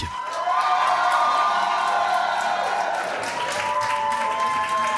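Very long, sustained applause and cheering from a concert crowd at the Supersonic as a British musician and his two musicians arrive, steady and loud throughout, with dense clapping under scattered whistles and high shouts that rise and fall.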